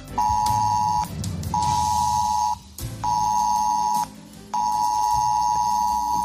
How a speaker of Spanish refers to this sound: Molesto, pero es lo que es, porque a partir de hoy un pitido como este y una notificación te van a avisar si estás en la zona de una catástrofe o de una emergencia, por ejemplo, un terremoto, un incendio o un temporal como Filomena.